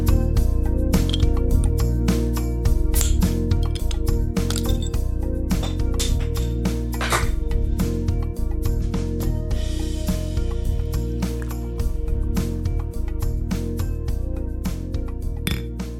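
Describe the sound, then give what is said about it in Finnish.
Lager pours into a glass beer mug, with frequent bright glassy clinks and ringing tones running steadily through the whole stretch, loud and without any talking. “Ollut tuopponen, kun sinne laageria kaadettiin.”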